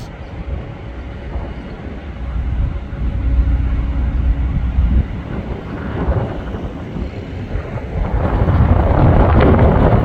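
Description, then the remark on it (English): A SpaceX rocket launch on May 5, 2023, heard from a Home Depot parking lot: a deep crackling engine roar that swells steadily louder toward the end, with some wind buffeting the microphone and no voices. “SpaceX Launch May 5, 2023 From Parking Lot”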